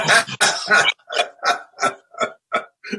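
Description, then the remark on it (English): A person imitates an aggressive growl, starting with harsh, raspy snarling, then breaking into a string of about six short, rhythmic growling bursts that gradually soften. “That is a perfect example of how Ticket was, just growling and foaming out the mouth”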